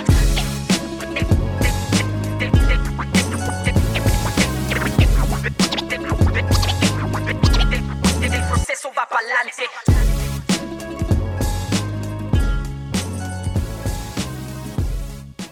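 Loud, dense hip hop beat with a heavy bass line and punchy drums, cut by turntable scratching, with lyrics in English and Spanish; the bass drops out for about a second midway before the full groove returns.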